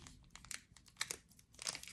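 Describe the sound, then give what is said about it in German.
Irregular crinkling and crackling of a foil trading card pack with Miraidon on the cover being pulled and torn open by hand, coming in short bursts with brief pauses, fairly quiet overall and with no voices. “Ich kriege das Pack gleich nicht auf.”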